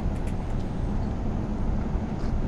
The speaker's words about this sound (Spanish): Erasmo termina de estacionar el auto en otro lugar, más lejos de la entrada